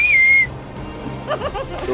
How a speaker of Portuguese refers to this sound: Uh, eu grito, madruguinha! E assovio forte.